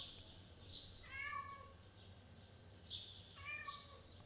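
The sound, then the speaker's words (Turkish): A cat meows loudly twice, a couple of seconds apart, each call drawn-out and insistent, wanting to go outside, against a quiet, faintly noisy background with no talking. “Bu hoş bir şey değil yani sonuçta kediniz bu kadar bağırıyor ve ona ilgisiz davranıyorsanız o da sizin şu anda e, biraz psikolojinizin bozuk olduğunu gösteriyor”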